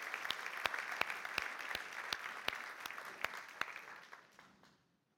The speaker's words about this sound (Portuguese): No nome de Jesus e toda a igreja diz, aplauda o Senhor que ele merece, ele é bom. Ele é fiel.